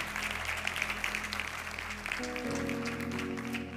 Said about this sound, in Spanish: Gracias, querido. Un aplauso un aplauso, por favor. Gracias.